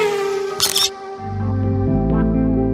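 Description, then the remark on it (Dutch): A single sharp camera-shutter click, like a speed camera snapping, sounds briefly and crisply over a steady musical drone that swells into a low, sustained tone afterward. “De Schotten innen bijvoorbeeld meer belastingen en krijgen nu ook zelf het geld binnen als je te hard langs een flitspaal scheurt.”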